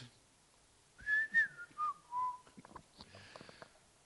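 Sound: person whistling a tune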